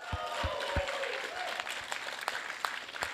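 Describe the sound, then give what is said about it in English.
A church audience claps excitedly in celebration, a dense, steady burst of applause, with a few sharp individual claps standing out and faint crowd murmuring underneath. “Let's give a real sojo clap and excited claps.”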